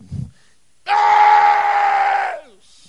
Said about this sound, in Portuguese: Para você ver a distância que eles estão de Deus. Se você está longe de uma pessoa, você tem que sair aos gritos.